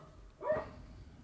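A single short dog bark rings out once, sounding muffled against a quiet background hum, with no one talking.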